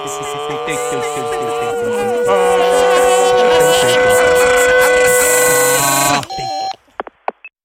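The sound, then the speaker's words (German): A loud, drawn-out answering machine beep, thick with buzzing harmonic layers, holds steady for about six seconds before cutting off, followed by a few faint clicks. No one speaks. “Bitte schweigen Sie nach dem Piep.”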